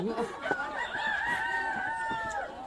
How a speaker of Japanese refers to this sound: これね、これねしばらく5分ぐらいこの鶏の鳴き声だけを皆さん聞いてください。朝らしくていいかもしれないですね。すげえなー。